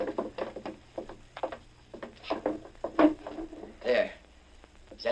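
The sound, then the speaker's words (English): A wooden chair in a farmhouse is shuffled and set down with its back to the kitchen door after dark, with a few hollow knocks and short scrapes, over faint indistinct voices and a low background hum. “place that chair with us back to the kitchen door, like I told you.”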